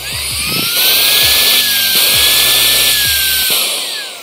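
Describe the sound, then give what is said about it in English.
A vacuum cleaner, tested on whether it can suck up a Bible, roars steadily, a loud, dense hiss over a motor whine that rises slightly and holds, with a few low thumps and knocks as something bumps against the nozzle. “We're gonna see, for instance, this vacuum, can this vacuum suck this Bible?”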